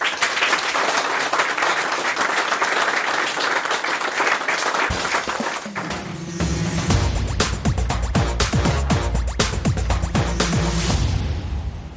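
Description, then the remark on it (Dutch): Sustained applause from an audience at Awesome Space in Utrecht for four men, a dense, steady wash of many hands clapping at once, loud, continuing throughout with some brighter, more irregular bursts toward the end. “Eh, dus ja, heel graag toch even handjes op elkaar voor deze vier heren.”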